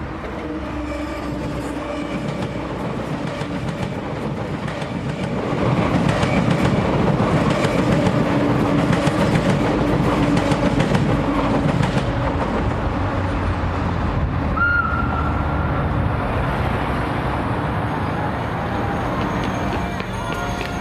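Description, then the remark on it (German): Steady city traffic rumble with a train rolling past, its continuous low roar swelling midway and holding loud, with faint rhythmic clatter beneath and a brief higher squeal near the end. “Also ich höre als erstes den Verkehrslärm, den Kiesboden.”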